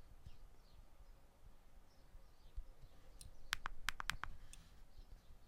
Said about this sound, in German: Ich hole mir mal die Tastatur wieder. Und ich meine, ich hätte AA. Wir probieren das mal aus. Und ich mache Enter.